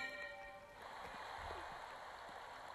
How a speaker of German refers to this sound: Wow, jetzt ist fucking Wasser abgeflossen. Ins Nichts verschwunden. Was zur Hölle?